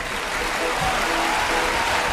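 An audience claps steadily for the organization's coordinator, a dense, continuous wash of many hands that stays at an even level throughout, with a few faint voices barely audible underneath.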